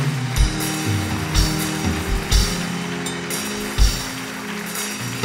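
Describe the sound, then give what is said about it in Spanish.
A large crowd claps steadily in a dense, continuous roar of applause given to God, with a few louder swells, while sustained low musical tones hum underneath. No one speaks. “Dale un aplauso a Dios bien fuerte, por favor.”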